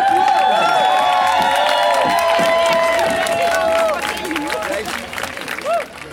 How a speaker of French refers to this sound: Et je vais vous demander d'accueillir dans un tonnerre d'applaudissements ma sœur La Dèche de la Maison